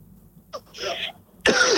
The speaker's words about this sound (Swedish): Jag har en jävla förkylning och eh, en jävla hosta.